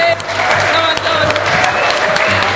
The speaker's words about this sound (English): Let's uh, give another round of applause. Thank you very much.